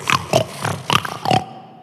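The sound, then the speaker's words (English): A voice imitates a pig, making five quick, nasal oinking grunts in a rapid uneven rhythm, fairly loud, then falling silent. “Sound effects mine.”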